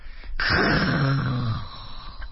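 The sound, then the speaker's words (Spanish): A voice imitates a snore with sleep apnea: a sudden noisy intake, then one loud, low, rattling growl lasting about a second before it cuts off as breathing stops, and only faint breath noise remains. “Ahí está la apnea, está dejando de respirar.”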